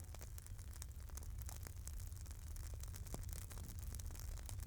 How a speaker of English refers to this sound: The sound of the fire crickling and crackling.